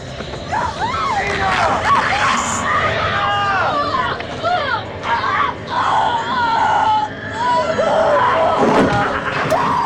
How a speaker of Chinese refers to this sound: 此时皮衣哥醒了过来，发现蒂娜在歇斯底里的尖叫，身子疯狂的扭动。